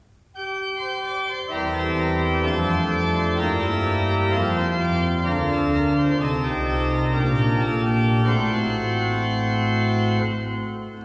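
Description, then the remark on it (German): Organ music plays loud and sustained, the second theme in the upper voices soon joined by a pedal entry of deep bass notes underneath, with rich held harmonies throughout and no talking. “Ich spiele Ihnen mal die Kombination von äh, diesem zweiten Thema mit dem Pedalsatz, Pedaleinsatz an einer Stelle vor.”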